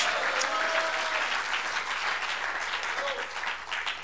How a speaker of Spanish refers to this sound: Gloria a Dios. Pero dale al Señor un buen aplauso con alegría, hermano. Gloria a Dios.